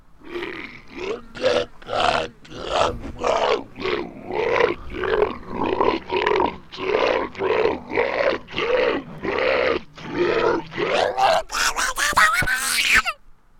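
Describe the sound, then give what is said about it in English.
An angry boss's yelling slowed way down into deep, drawn-out, roar-like vocal bursts in a steady pulsing rhythm, loud, rising into a harsher, brighter burst near the end before cutting off. “I want to hear what that would be like slowed down.”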